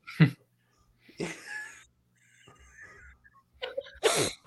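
Loud, wet sniffling, four or five sharp nasal bursts spaced unevenly with quiet gaps between them, some drawn out into a longer snorting inhale. No one speaks.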